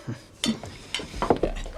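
Dishes and cutlery clatter in short, bright clinks and knocks, several scattered impacts over a couple of seconds, as plates and utensils are set down while the supper table is set in a kitchen in the evening.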